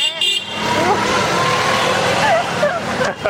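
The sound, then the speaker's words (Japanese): Busy traffic with tuk-tuks on a big avenue at about 3 p.m.: a steady, dense roar of engines that never lets up, with a few wavering higher tones and a murmur of voices mixed in. “すごいあのトゥクトゥクみたいなのも結構走ってますよね”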